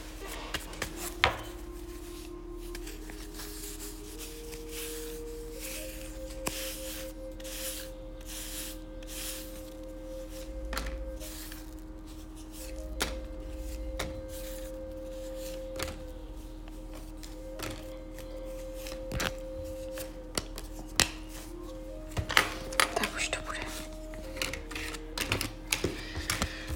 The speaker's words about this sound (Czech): A já už se dívám na vaši fotku, míchám toho karty a my se spolu podíváme, co nám Tarot poví o vás dvou.